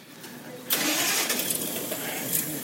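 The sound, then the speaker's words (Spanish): A bus engine cranks and catches after a brief quiet lead-in, then settles into a loud, steady rumbling idle, with a slight surge near the end. “Entre paradas del autobús aunque algunas cosas han cambiado en este episodio.”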